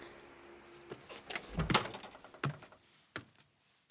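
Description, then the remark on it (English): A front door opens and shuts, with a heavy thump near the middle and several sharp latch clicks and knocks around it. No one speaks. “In the front door and down to the church basement.”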